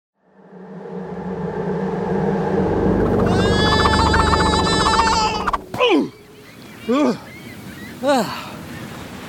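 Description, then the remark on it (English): Crystal-clear ocean waves wash up onto a golden sandy beach in a steady, rushing swell, then fall away, leaving three short, sharp cries spaced about a second apart. “There's golden sand on the ground and oh, there's waves and they're crystal clear.”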